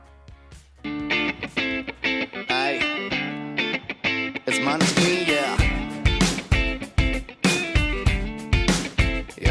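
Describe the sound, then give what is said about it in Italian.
A single by an Italian rock band, released in March 2018 from their first studio album, plays loud: a sung vocal over dense guitars, with a driving drumbeat punching in strongly halfway through and building energy to the end. “Adesso ascoltiamoci una canzone che mi piace molto perché mi dà tanta carica”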